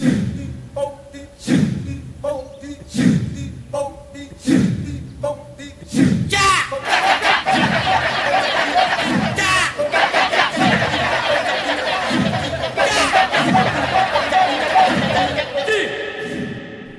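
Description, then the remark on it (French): A large group of male voices chants Balinese kecak, ritual chants dedicated to the monkey gods, in Bali, in dense, rapid interlocking bursts, with rhythmic shouted accents roughly every second, building into a continuous loud, layered chatter-like chorus. “Eh bien, à Bali, ce serait par exemple le ketchak, des chants rituels dédiés aux dieux singes, aux antipodes de ce que l'on vient d'entendre.”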